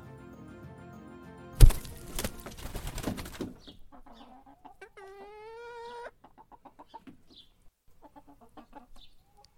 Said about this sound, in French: Ce son, c'est celui de mes poules. C'est désormais les êtres vivants que je vais côtoyer le plus dans les prochains jours.